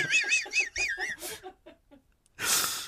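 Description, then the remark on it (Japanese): Many frogs croak outdoors in a quick, rhythmic chorus of about five rasping calls, loud, then fade into scattered fainter croaks. Two short bursts of breathy noise follow. “音で言うと、とりあえず、うんカラスですかかカエルでしょカエル完全カエルでしょカエルがめちゃくちゃ鳴いてるのか。”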